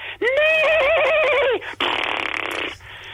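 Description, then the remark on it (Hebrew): A person imitates a horse's whinny with a loud, wavering voiced neigh lasting over a second, followed by a breathy, rasping snort-like burst, alone with no talking; a sound effect made on reaching the horse while reading the Megillah aloud. “אה, כשאני מגיע לסוס, אני מפסיק לשנייה ועושה...”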